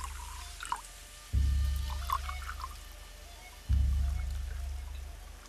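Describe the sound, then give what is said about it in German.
Rice wine poured out as an offering inside a shrine, in two separate bursts, each a steady gurgling rush that starts abruptly and slowly fades, with a few faint drips and trickles before the first pour. “Und Takeo opfert vom mitgebrachten Reisschnaps.”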